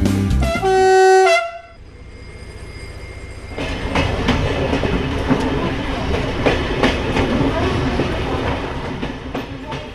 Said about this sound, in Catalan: Endavant per un viatge de Ribes Alta a Atzat, del Rosselló a la vall alta de l'Auda. El tren ja surt de l'estació